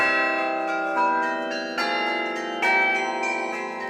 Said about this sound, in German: Es kommt nur darauf an, dass die Glocke möglichst kurz angeschlagen wird.